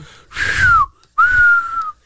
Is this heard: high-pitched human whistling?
yes